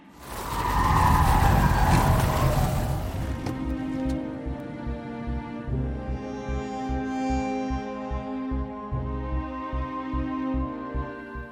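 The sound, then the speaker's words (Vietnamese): Car tires skid hard on a wet road for a few loud seconds as the car narrowly avoids hitting a car turning left at an intersection, then the noise settles into a steady, rumbling engine idle as the car stops, with no voices. “Nhờ vậy mà xe của tôi chỉ sượt qua đuôi chiếc ô tô con định rẽ trái phía bên kia ngã tư. Hai xe tránh được va chạm trong một tích tắc.”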